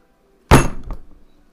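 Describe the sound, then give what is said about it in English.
A heavy Pathfinder Second Edition book slams down onto a table with one loud, sharp thud, followed by a smaller knock and a short rattling decay. No voices are heard. “Was that the thing you just slammed against the table?”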